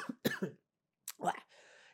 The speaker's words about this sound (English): i'm just gonna cough for a second